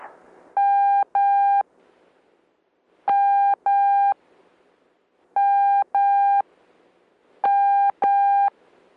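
Morse code letter M sounded four times: each time two long, steady mid-pitched beeps in quick succession, separated by short pauses. The tones are loud and clear, with no talking.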